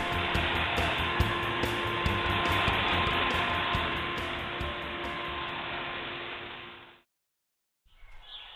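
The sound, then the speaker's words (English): A loud vacuum cleaner, used by Mr. P to clean a rug, roars steadily with a whiny motor hum and faint rhythmic clicking, then shuts off abruptly; after a second of silence it briefly starts up again. “Whoa, yelled Mr. P over the vacuum cleaner.”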